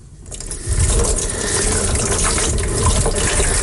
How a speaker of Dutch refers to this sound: Nu door het gieten van dit water is dit proces onderbroken. Dus hij is niet meer lichtgevoelig.